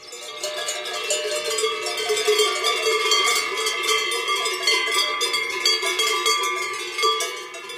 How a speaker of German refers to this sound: Ob die Kühe ihre Glocken mögen? Die Frage ist wirklich schwer zu beantworten. Auch nach zwei Wochen Almgebimmel und intensiven Gesprächen verstehe ich die Kühe nicht.